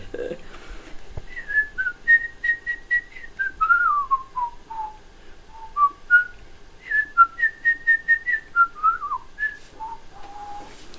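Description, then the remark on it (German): Someone whistles a birdlike melody: two matching phrases of clear, bright notes, each a run of quick repeated chirps followed by a falling, warbling glide, with no talking over it. “ob man das pfeifen kann”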